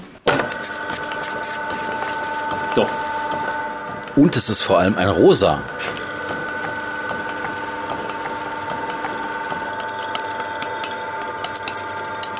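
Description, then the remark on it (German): A printing machine hums steadily while rollers ink a seahorse printing block, with a louder burst of wet, smacking slaps for about a second in the middle. Someone speaks briefly over the machine noise. “So, ich mache jetzt mal die Maschine an. Achtung, jetzt kommt der schmatzende Moment.”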